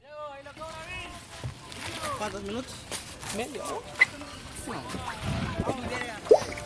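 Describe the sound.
Water sloshes steadily around a raft crossing the Suchiate River at the border from Chiapas, Mexico, to Tecún Umán, Guatemala. It is one of many rafts going back and forth. Several voices chatter throughout, and a couple of sharp knocks stand out toward the end.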